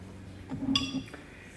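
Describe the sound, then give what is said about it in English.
A glass clinks sharply once as water is served, leaving a bright ringing tone that fades over about a quarter second, with soft pouring and handling sounds around it and low background hum. “Are you all right? Would you like some water?”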